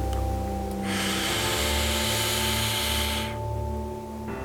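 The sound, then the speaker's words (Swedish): One slow, deep inhalation during a 4-7-8 breathing exercise, a steady airy rush lasting about two seconds, fairly loud over a low, constant humming drone. “Andas in.”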